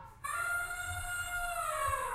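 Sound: elephant trumpeting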